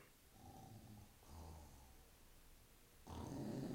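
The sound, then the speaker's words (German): A man snores heavily in his sleep, with three rough, rumbling breaths in a slow rhythm, the last one loudest. No one speaks. “Schläft wie ein Bär”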